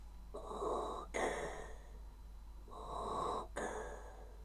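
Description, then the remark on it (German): A voice imitates Darth Vader's heavy mechanical respirator breathing: two slow, hissing inhale-exhale cycles, fairly loud, with no talking. “Genau, der atmet so, hat eine schwarze Rüstung an.”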